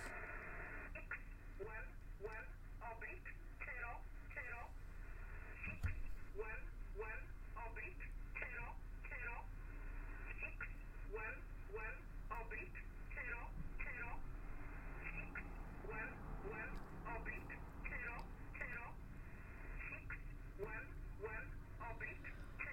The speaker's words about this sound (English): Friday, April 29th, 2022, 3:09 p.m. here in the apartment listening to 8530 kilohertz.